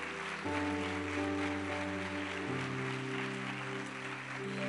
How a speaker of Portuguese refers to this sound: Aplauda o Senhor bem forte.